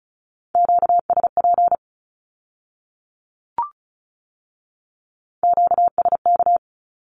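Two quick bursts of rapid Morse code beeps sending Q-codes at 35 words per minute on a steady, piercing tone, separated by a few seconds of silence broken only by a single soft click. No voices.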